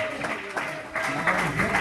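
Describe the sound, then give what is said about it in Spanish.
An audience applauding God in a steady, dense wash of clapping, with voices rising and falling underneath throughout. “Vamos, denle un fuerte aplauso a Dios en esta hora.”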